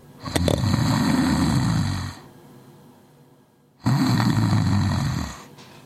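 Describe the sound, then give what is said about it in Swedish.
Two long, deep rumbling snores from a large animal, each lasting about two seconds with a quiet pause between, loud with a bass-heavy, vibrating growl. “så det nästan mullrar lite som en bas. Det hör du snarkningar.”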